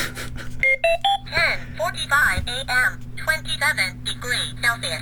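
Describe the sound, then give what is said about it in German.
A talking clock's alarm: a few short electronic beeps stepping upward in pitch, followed by speech over a steady low hum, fairly loud. “Oder eben ein Piepsgeräusch oder auch einen Kuckuck.”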